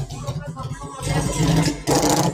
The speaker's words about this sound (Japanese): あ、うるさい。大きなバイクが。賑やかですよね。すごく。